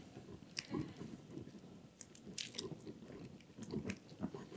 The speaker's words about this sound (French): Alors, je vais juste prendre une gorgée.